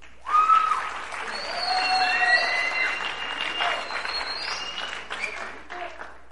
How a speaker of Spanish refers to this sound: Un aplauso para